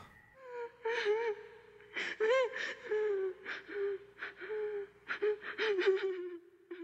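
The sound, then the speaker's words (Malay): Steady crying heard at night, with tremulous whimpers and sharp gasping breaths, the wavering pitch rising and falling in uneven bursts for several seconds with no talking. “Terdengar sangat jelas bunyi tangisan.”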